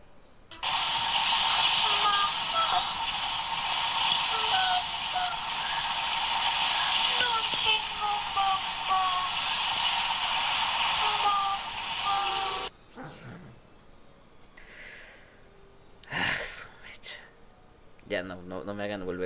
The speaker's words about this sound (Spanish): Voy a repetir esta psicofonía. Ah, me lleva. Y, es de las que más me da miedo, no entiendo.